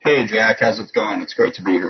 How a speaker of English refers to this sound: Um, you just got a little wonky on audio there, so hopefully that doesn't stay that way. Okay. Yeah, all of a sudden you're echoey. I don't know what happened. It was fine when we tested it.